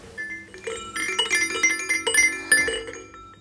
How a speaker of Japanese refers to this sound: この音色が聞こえますかこれは私が30年前、ピーピー赤ちゃんだった時にも使っていたガラガラです。名前をバード夫人と言います。子供も私の子供も使っています。